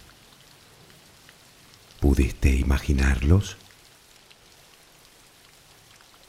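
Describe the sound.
Steady rain hisses softly throughout, a continuous even patter, while a person briefly asks a question over it partway through.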